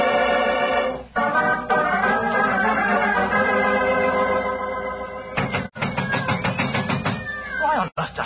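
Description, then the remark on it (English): Several cats inside a locked theater dressing room meow and wail almost nonstop, long drawn-out cries overlapping loudly for the whole stretch, with a few sharp thuds breaking in near the end. “There are cats inside our dressing room.”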